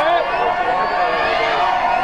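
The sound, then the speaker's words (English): A large baseball stadium crowd roars steadily as it comes alive during the game, a dense wash of many voices shouting and cheering together, loud and sustained throughout. “As the Auburn all, or crowd starts to come alive.”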